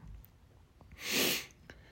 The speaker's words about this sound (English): um, as I sniffle, fuck. No, I just got an itchy nose. I don't know why.